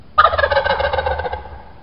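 A single loud wild turkey tom gobble bursts out during a turkey hunt in West Virginia and rattles rapidly for about a second and a half before trailing off, with no talking over it.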